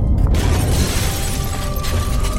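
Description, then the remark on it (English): A deep, steady earthquake rumble on the East Coast fills the low end while tools and items clatter and crash down from store shelves on top of it, with a sharp burst of breaking at the start. “It, has gotta be an earthquake!”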